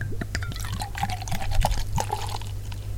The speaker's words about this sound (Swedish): sen har jag eh, inte ett glas utan jag har en plåtmugg från Rådanäs bryggerier som jag tänkte dricka ur. Mm-hmm. Så mhm. se hur det låter när man häller upp i ett plåt, ja. en plåtbägare istället för ett glas. Precis.